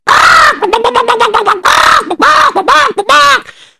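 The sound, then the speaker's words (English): A person squawks and clucks like an agitated chicken, a loud burst of harsh cries followed by a rapid stutter of clucks and a few rising squawks. “So she got to town and then she went first to get rid of the chicken because the chicken was going all over the place making a lot of noise.”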